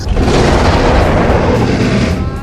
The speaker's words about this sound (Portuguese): Uma uma criatura imensa, reptiliana, Caralho. com um par enorme de asas, uma pele escamosa, negra, meio arroxeada. E vocês, que já consumiram tanto material de fantasia, reconhecem um enorme dragão saindo do portal e rugindo para vocês.